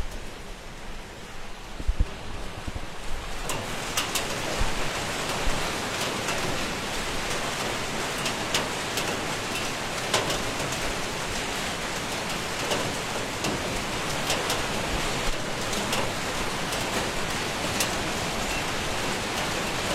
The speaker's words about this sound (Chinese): 外面的雨的话，依旧下的很大。